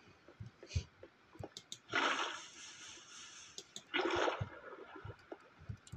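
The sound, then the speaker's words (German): Two short, splashy bursts of video game water being poured out, one after the other a couple of seconds apart, as the player throws the water away, with soft clicks and taps scattered around them and no talking. “So, jetzt machen wir natürlich hier so ein super MLG äh, wo ich natürlich erstmal den Wasser einmal wegwerfe und die nicht auch fange.”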